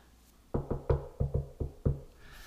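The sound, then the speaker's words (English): Knuckles rap on wood about seven times in quick, slightly uneven pairs, clear, with hollow, solid thuds and no voices. “And I might borrow that because my shoulder's been Knock on wood.”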